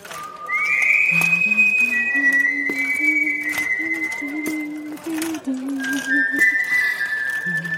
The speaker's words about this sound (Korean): 아, 언제 들어도 휘파람 소리 하나는 일품이라니까.